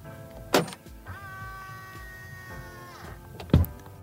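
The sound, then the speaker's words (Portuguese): The door of a Volvo XC40 Recharge Pure Electric car unlocks automatically with a proximity key, giving a sharp click, followed by a steady electric motor whir lasting about two seconds, then a solid thunk, clear with no talking. “e a porta já destrava automaticamente.”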